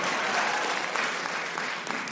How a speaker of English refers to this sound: My cousin came out to us, told us he was gay. Clap for that shit, because that is huge. Hell yeah.